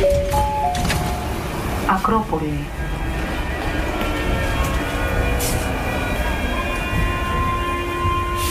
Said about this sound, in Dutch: het geluid van de trein. Ja, in Athene is dit. Dit is eh, bij de Acropolis? Ja, precies, ja.